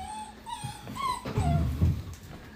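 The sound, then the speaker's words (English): Puppies whimper in a series of thin, high-pitched whines, several short cries rising and falling, with some low rumbling handling noise partway through. “yeah, bring the baby wolves in here. You can hold yours, I'll hold ours so they ain't going crazy.”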